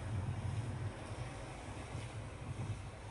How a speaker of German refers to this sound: Du lässt das Rauschen der Wellen, das du jetzt deutlicher und deutlicher wahrnimmst, deine Entspannung weiter und weiter tragen. Du konzentrierst dich mit jedem Ein- und Ausatmen auf das Rauschen der Wellen.